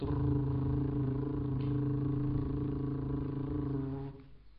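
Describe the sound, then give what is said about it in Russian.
A voice imitates a car engine with a low, steady droning hum held for about four seconds before it cuts off abruptly, fairly loud with no other sounds. “Допустим, звук мотора.”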